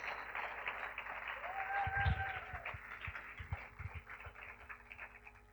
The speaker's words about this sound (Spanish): Amén. Dale un aplauso al Señor si se lo quieres dar.